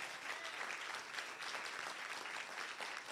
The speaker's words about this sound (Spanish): Si usted quiere la bendición de Dios, denle un aplauso fuerte entonces.